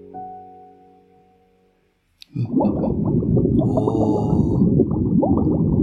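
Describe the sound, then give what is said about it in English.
Played by the Alexa skill Underwater Sounds: a low droning tone fades to near silence, then a loud, dense burst of bubbling, gurgling underwater noise surges in, with faint high squeaks and tonal whale-like calls above it. “It's called Underwater Sounds, and of course, it's going to be massively loud, so I'll have to turn it down as soon as it starts.”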